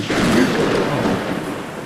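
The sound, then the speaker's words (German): A loud boom of thunder from a thunderstorm directly overhead rolls into a sustained rumbling crash that fills the whole moment, broad and heavy, with no voices over it. “Oh, das Gewitter jetzt direkt über uns, oder?”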